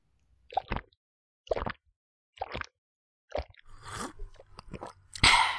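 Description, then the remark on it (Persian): Wet chewing and smacking as a very hungry bee eats quickly, in four separate bursts followed by a longer stretch of busy, continuous munching with clicks and gulps. “فقط میشه اول یه ذره آب قم بهم بدین من خیلی گشنمه چند روزه هیچی نخوردم بفرمایید نوش جان”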